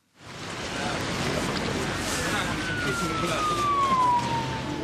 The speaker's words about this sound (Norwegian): Ikke sjelden blir byidyllen i hovedstaden forstyrra av sirener. Og politiet i Oslo har nok å gjøre.